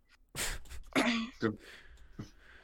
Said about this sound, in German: Vielleicht sterbe ich bis dann noch, weil ich mich so sehr verschlucke.